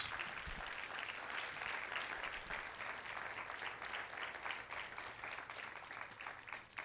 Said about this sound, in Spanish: Si usted lo cree, den un aplauso fuerte al Señor. Vamos.